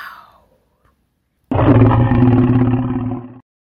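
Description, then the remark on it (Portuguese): A giant dinosaur roar bursts in after a brief quiet, a single loud, deep, rumbling bellow lasting about two seconds before cutting off abruptly, with no voices. “Cabe um gigantesco dinossauro”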